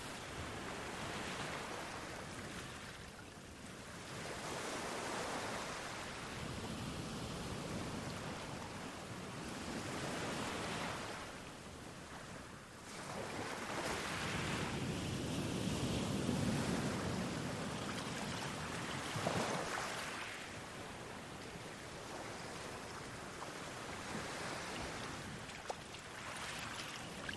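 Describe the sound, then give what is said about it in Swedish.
Soft waves wash in and draw back at the shoreline in a slow, steady rhythm, each swell of watery hiss rising and fading every few seconds, with no voices. “Du står där i vattenbrynet och upplever rytmen i vågornas sakta skvalpande.”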